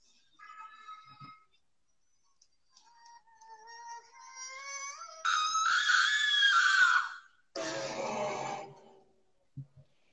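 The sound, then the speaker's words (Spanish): A played scream sound effect: rising high-pitched wails building into two loud, harsh shrieks, the second cutting off abruptly, with no talking over it. “En mi top número 3 tengo algo, mm, algo, ponme ese grito, ponme para contarlo.”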